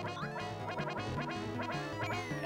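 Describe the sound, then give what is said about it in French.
Donald Duck, in a video game, grumbles after eating a chili pepper, in a garbled, nasal quacking voice over steady, busy background game music, the muttering running throughout the moment. “Et là, là, Donald a pris du piment. On l'entend qui râle.”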